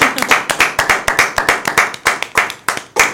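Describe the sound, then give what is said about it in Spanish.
An audience applauds steadily for about three seconds, honouring Andrés Garrido del Toral at a recognition ceremony in Bernal. Many hands clap in a dense, crisp, uneven patter that stays fairly loud throughout, with no voices standing out. “Otro reconocimiento y también aplauso a una persona que por cierto se nos puso malita hace poco tiempo, al divo queretano.”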